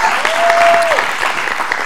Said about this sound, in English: Now come on and clap your hands and like you believe that.